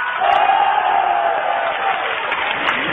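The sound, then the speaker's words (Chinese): An audience at the Liu Laogen Grand Stage theater roars with sustained shouting and cheering in answer to a question put to them from the stage, a loud, dense wash of many voices that holds steady for the whole stretch with a few sharper whoops cutting through. “那同意他是不男不女的，呐喊声有多少呢？”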